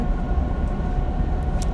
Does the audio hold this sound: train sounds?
yes